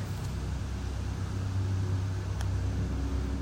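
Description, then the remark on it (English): An airplane drones overhead, a steady, continuous low rumble with a broad hiss on top that holds at an even, moderate loudness throughout, with no voices. “Sounds like we have a uh, aircraft flying over.”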